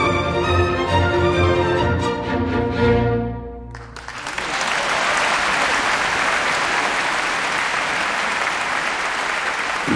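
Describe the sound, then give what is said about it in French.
Jean-Sébastien Bou sings the champagne aria from Mozart's Don Giovanni with orchestra at Radio Classique's grand concert of June 2019. It closes on a held final chord, then the audience of the Théâtre des Champs-Élysées bursts into loud, dense applause that continues steadily without any talk. “Jean-Sébastien Bou, l'air du champagne, Don Giovanni Mozart, c'était le grand concert radio classique de juin 2019 et ce sont les applaudissements du public du théâtre des Champs-Élysées où vous chanterez dans quelques jours.”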